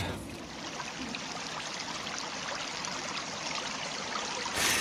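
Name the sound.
flowing spring water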